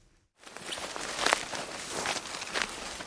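Footsteps stomp through dense brambles and nettles in a forest in Brandenburg on an evening shortly before dusk. A hunter with a silenced rifle on her shoulder walks to a raised hunting stand, with crunching, rustling vegetation at each step. The steady trudging starts after a brief silence and continues without any voices.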